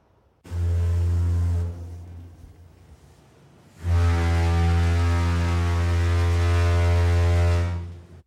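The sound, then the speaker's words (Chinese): A ship's horn sounds twice: a short, deep blast, a pause, then a much longer, steady low blare with a rich, buzzy tone. No one speaks. “还是坐船呢？”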